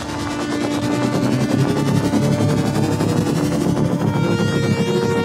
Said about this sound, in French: un instrument VST qui va permettre de créer des sons de véhicules complexes, plutôt de science-fiction